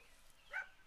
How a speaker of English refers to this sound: Pretty sure you can hear my dogs in the background being assholes.